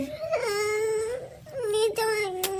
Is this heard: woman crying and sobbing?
yes